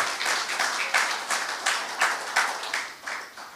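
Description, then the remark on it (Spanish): A church audience claps hands together in praise to God in a steady, rhythmic beat, the many overlapping claps forming a bright, continuous patter at moderate volume with no voices. “Entonces uno se siente feliz, contento, dele palmas al que vive.”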